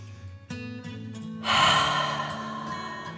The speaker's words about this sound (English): Remember to breathe in like a dragon and out slowly. Say to yourself, I am breathing in. Now I am breathing out.